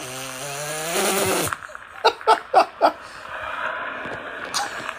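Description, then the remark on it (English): A tortoise hisses in short, breathy bursts, four quick puffs in a row and then one more after a pause, following a brief low, droning groan at the start. “Hissing tortoise.”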